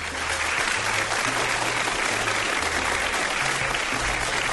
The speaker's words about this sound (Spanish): Bueno, el aplauso entonces para don Aníbal.